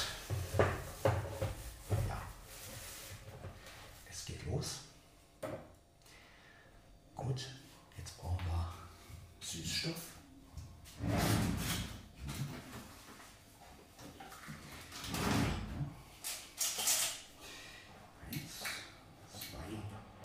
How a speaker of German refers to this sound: Äh, gut, ich gehe jetzt mal ein bisschen weiter weg, damit ihr so ein bisschen Raumsound hört. Damit ihr mal so hört, wie klingt die Kamera eigentlich.